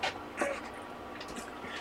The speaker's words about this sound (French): Du coup, quand je me tais, ben, vous entendez peut-être les ventilos du chauffage, que je vais